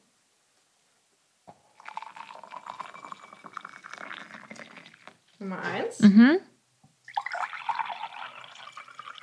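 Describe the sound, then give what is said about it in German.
Water is poured in two separate bursts: first warm water in a longer steady splashing stream, then cold water in a brighter, hissier second pour, with a short spoken phrase and a murmur in between. “Also Nummer eins würde ich ja sagen warm und das zweite würde ich sagen ja, kalt.”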